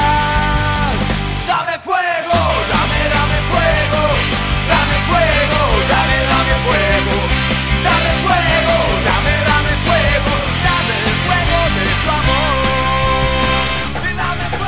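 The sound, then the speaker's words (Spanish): A loud rock band plays a cover version of a well-known popular song steadily, with dense distorted guitars and pounding drums filling the mix, briefly dropping out for a moment near the start before surging back to full volume. “ahí estaba entonces …, la versión de …”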